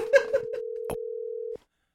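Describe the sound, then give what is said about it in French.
A telephone ringback tone on a call: one steady, mid-pitched electronic tone holds for about a second and a half, then cuts off abruptly. A few faint murmurs and a click sit over it early on. “Ça sonne.”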